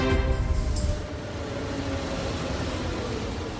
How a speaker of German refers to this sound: Früher Morgen am Bahnhof der Bayerischen Zugspitzbahn. Auf dem Gleis fährt der Zug ein. In wenigen Minuten geht es los.